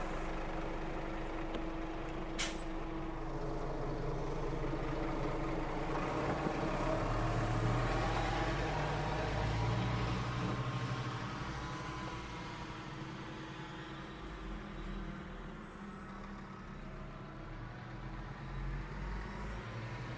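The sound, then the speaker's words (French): A bus travelling to Nedenkloa drones steadily throughout, a deep continuous rumble with road noise that swells slightly midway and then settles, marked by one sharp click early on; no one speaks. “Alors je viens juste de descendre du bus à Nedenkloa et c'est là que, qu'est supposé être le Skoltsami Museum que je vais visiter.”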